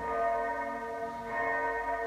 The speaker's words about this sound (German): Der Klang der Glocke stößt einen Gedanken an.